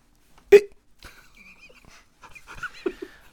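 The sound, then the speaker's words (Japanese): A single sharp, loud hiccup from a child during a stage performance, coming out instead of a spoken line, pops out near the start, followed by quieter breathy rustles and faint soft vocal noises. No one speaks. “私から発せられたのはセリフではなく、そう、しゃっくりだったのです”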